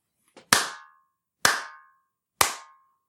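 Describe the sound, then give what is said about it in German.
Three sharp hand claps spaced about a second apart, made in a recording room with a lot of reverb to demonstrate its echo, each followed by a ringing, metallic-sounding reverb tail that decays quickly. No one speaks. “Da kann man jetzt ganz deutlich so einen metallischen Nachhall hören.”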